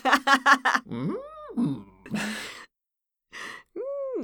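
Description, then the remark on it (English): A person vocally imitates a Skeksis, modeled on the Chamberlain from The Dark Crystal, producing rising and falling whiny moans with short gasping breaths in between, fairly loud, with a brief pause before a final moan. “Uh, sound like uh, the Skeksis. I, I model myself after the Chamberlain in, in the Dark Crystal.”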